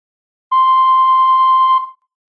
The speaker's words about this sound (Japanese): ただいま留守にしております「いい」という発信音の後にメッセージをどうぞ